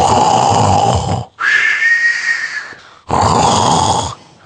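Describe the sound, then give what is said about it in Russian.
A voice imitates a man asleep in a train carriage snoring loudly, three drawn-out rasping snores in a row with brief pauses between, forceful, the middle one rising into a whistling wheeze. “храпеть, как начал на весь вагон.”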